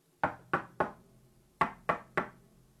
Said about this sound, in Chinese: 一天晚上，当他们就这么惬意地坐在一起的时候，一阵敲门声忽然传入他们的耳朵。